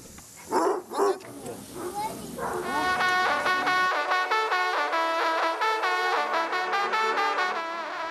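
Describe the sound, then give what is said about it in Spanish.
A pack of about a hundred hunting hounds of the hunt at Cheverny, France, barks and bays together, starting with two sharp barks before many overlapping, drawn-out howling voices swell into a loud, continuous chorus. “El administrador que dirige la manada vela por la equidad entre los perros”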